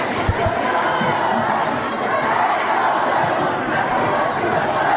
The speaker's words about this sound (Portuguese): Falar um pouquinho sobre a aprovação pela Alesp da privatização da Sabesp. Teve tumulto e a gente ouve um trecho.